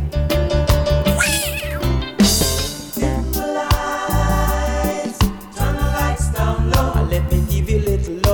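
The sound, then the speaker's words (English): Frederick the Cat, part of the Boot Boy Radio Animal family, meows loudly in drawn-out, wavering cries over a rhythmic music track with a heavy, pulsing bass beat, the meows rising and falling through the song. “including Frederick the Cat, who's officially part of the Boot Boy Radio Animal family.”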